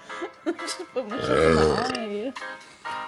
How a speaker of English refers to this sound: Oh, that burp smelled so putrid. Ew oh my god. I got some of that. That shit smelled like garbage.